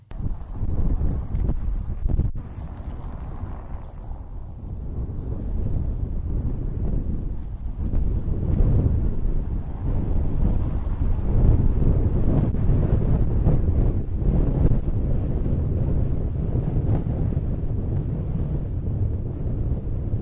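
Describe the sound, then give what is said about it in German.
Strong wind blows steadily through an urban wind corridor in the Brauereiquartier, St. Pauli, a deep, rumbling roar buffeting the microphone for the whole stretch, with no voices. “möchten wir, dass ihr auf der Karte in die Windschneise geht.”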